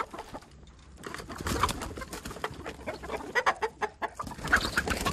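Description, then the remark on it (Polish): Chickens cluck and squawk in a busy, overlapping chorus, with sharp bursts of calls rising over a steady farmyard murmur, moderately loud throughout. “i poproszę o kurę i przechodzimy do dania głównego.”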